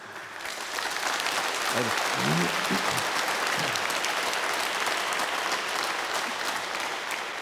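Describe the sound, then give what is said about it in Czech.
Sustained audience applause, a dense steady wash of clapping that holds at an even level throughout, with a few faint voices briefly audible beneath it. “Ne, dneska mě ty lidi prostě mají rádi, ty jak vždycky tleská, řeknu, já řeknu prd a oni...”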